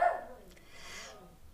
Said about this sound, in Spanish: ahí están los perritos. Me encanta grabar los podcasts en el carro porque los perritos siempre salen a saludar.